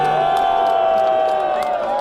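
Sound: audience applause and cheering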